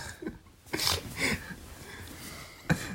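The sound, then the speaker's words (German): A voice imitates a creaking door: a few short, breathy, squeaky bursts, with a final brief knock-like thump at the end. “Eine Tür.”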